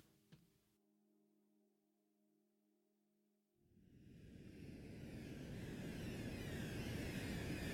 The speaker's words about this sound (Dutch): Boven onze hoofden klinkt het gebrom van een vliegtuig.